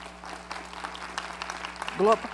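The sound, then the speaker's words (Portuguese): An audience claps steadily together to applaud the Lord, a dense, continuous patter of many hands at moderate volume, with a single voice briefly rising over the applause near the end. “Aplauda mais forte ao Senhor. Ele merece.”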